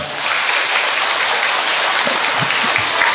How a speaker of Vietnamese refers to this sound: Chúa chúc lành cho con Hallelujah vỗ một tràng phát tay thật to lên thưa anh chị em